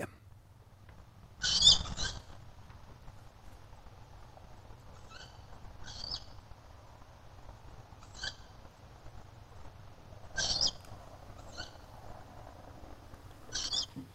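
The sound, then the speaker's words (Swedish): At least two tawny owl chicks give thin, hissing, high-pitched calls from old trees in a yard in Kyrkslätt late on a June evening, about seven short screeches spaced irregularly over a low steady rumble. “Det låter som kattuggleungar.”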